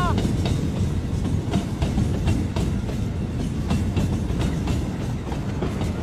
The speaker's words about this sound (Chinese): 而年轻的自己似乎也懂了，他骄傲地拉响火车的汽笛，消失在无忧无虑的远方。